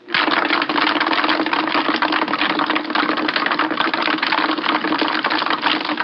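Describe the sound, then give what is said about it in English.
The Timex agitator machine, shown in an early Timex commercial, runs steadily with a loud, continuous mechanical rattle and a low hum at 1,300 vibrations per minute. Ice with Timex watches embedded in it rattles and clatters rapidly against metal throughout. No one speaks. “We've placed them embedded in ice in our famous Timex agitator to see what happens at 1,300 vibrations per minute.”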